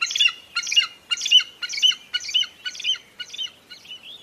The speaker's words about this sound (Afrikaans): Hy kyk op en daar sien hy 'n groot voël.